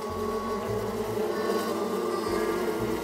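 A steady, continuous buzzing drone, like a swarm of bees humming, holding an even level throughout with no voices present.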